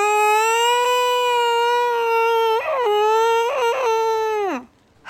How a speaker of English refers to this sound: When I was trying to attempt sleeping at night, even though I was just so scared, this is what cats sound like when they are mating.